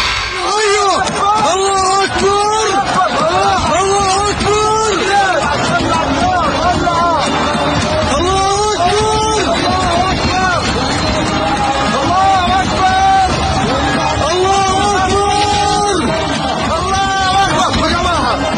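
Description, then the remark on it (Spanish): A panicked crowd shouts and screams continuously, many voices overlapping loudly, with sharp noisy bursts breaking through the commotion now and then, as rockets launched from Palestine are intercepted by Israel's Iron Dome air defense system. “Son cohetes lanzados desde Palestina que fueron interceptados por el Domo de Hierro, el sistema de defensa de Israel contra ataques aéreos.”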